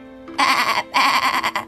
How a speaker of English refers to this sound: Some sheep.